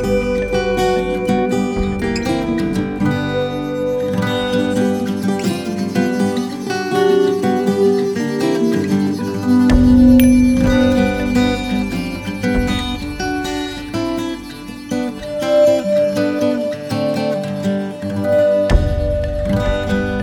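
A song plays steadily and fairly loud, with sustained tonal melody over a full, rhythmic accompaniment and deep bass that drops out and returns in places; no one speaks over it.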